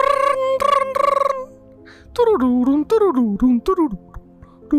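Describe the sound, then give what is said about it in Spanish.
A voice sings the Nokia ringtone melody, starting with a few held notes and then running through the familiar short, bouncing phrase, fairly loud. “Ah, era un Nokia. Era un Nokia, güey.”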